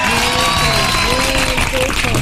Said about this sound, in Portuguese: Palmas pra Livânia!